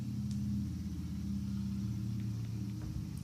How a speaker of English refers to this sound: I think a motorcycle just drove right past my house.